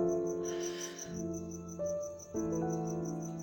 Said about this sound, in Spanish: con música de fondo de los grillos, anoche y un balcón desde el que veo el mundo